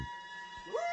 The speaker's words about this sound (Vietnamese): Trời có tiếng chó ở vườn sau đột nhiên chu lên, khiến cho ông giật mình cau mày quát.